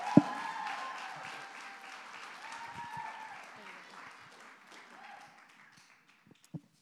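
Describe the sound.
A crowd breaks into a sustained round of applause mixed with whoops and cheering voices, gradually fading over several seconds, with a sharp knock at the start and another near the end.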